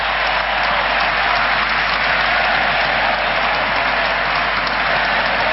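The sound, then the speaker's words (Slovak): Sustained applause from a large crowd for the Pope at his last general audience in St. Peter's Square, a dense steady roar of many hands clapping at once with no pauses or voices, holding at an even loud level throughout. “Ozýva sa dlhý potlesk, dlhý aplaus.”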